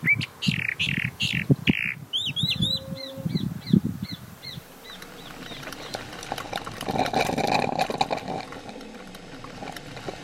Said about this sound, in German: Das ist ein einziger Vogel, der da singt. Ich vermute, dass es eine Kalandria ist, ein kleiner, unscheinbarer grauer Vogel, der da einfach sein Lied sang.